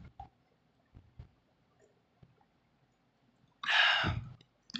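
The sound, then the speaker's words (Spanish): A few faint mouth clicks, then a short, loud slurping sip of a green juice, followed by a breathy exhale. No one speaks. “déjame le otro traguito a mi juguito verde.”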